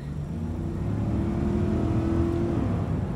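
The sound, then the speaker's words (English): A Volvo XC90 Recharge plug-in hybrid with a 400 horsepower T8 twin engine accelerates with a steady, rising hum and a low rumble, fairly loud for a few seconds, with no voices. “The thrill of a 400 horsepower T8 twin engine.”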